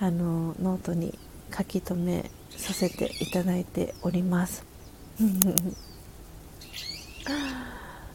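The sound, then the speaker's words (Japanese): Many birds call outdoors in the background, soft hooting and chirping notes drifting in while a person talks steadily in the foreground. “鳥の鳴き声良き そうなんですよ今日はねあのお天気がいいのかいつも以上に鳥さんたちがあのたくさんあの鳴いております。”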